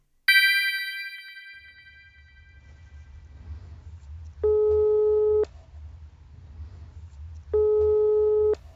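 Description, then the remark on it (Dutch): A bright chime rings out and fades, then a telephone ringing tone sounds twice, each steady electronic beep lasting about a second with a pause between, over a low background hum. “Vanuit mijn satelliet kan ik met ze bellen.”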